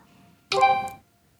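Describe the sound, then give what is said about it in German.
A single synthetic smartphone camera shutter sound: a brief, bright electronic burst with a ringing tonal quality and a small click near its end, heard alone against near silence. “Ja, es sind Auslösegeräusche, jedoch ganz besondere. Sie wurden alle für verschiedene Handys entworfen”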